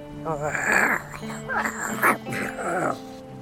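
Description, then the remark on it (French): A voice imitates a pirate's gruff, growling grunt, a few rough voiced bursts that rise and fall in pitch across a few seconds, sounding half animal and half human. “Et il lui répond à nouveau par un grognement.”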